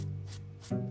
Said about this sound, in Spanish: es porque me, estoy rascando el cuello y tengo barba y entonces suena así.